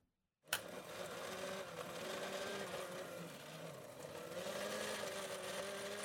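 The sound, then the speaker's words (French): After a brief moment of silence, an electric blender is switched on abruptly by pressing its red button and runs continuously, a loud, steady motor whir with a buzzing hum that holds until the end. “Jetez-le dans le mixeur et appuyez sur le bouton rouge.”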